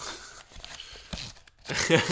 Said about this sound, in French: Et là, vous entendez le bruit de papier car je prends mes notes.